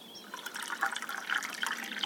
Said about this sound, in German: So, jetzt noch Erde drauf, festklopfen und gießen. Wo ist die Gießkanne?